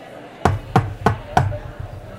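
knocking on a door

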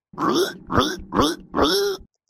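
pig grunting

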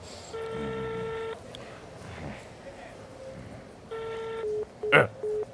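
telephone keypad dialing tones

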